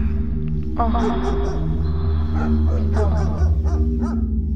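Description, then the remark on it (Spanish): Dogs bark and yip outside a garden in a few short, scattered bursts over a steady low droning hum, the calls moderately loud. “Sus perros continuaron ladrando por mucho tiempo afuera del jardín.”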